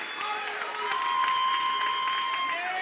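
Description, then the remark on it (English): A crowd claps steadily, a dense wash of many hands with scattered cheering voices and sustained tones ringing above it, loud and continuous throughout, as the audience is called to clap their hands and receive it. “Somebody clap your hands right there and receive it.”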